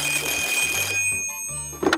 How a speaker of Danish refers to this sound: Telefonen bimler og bamler.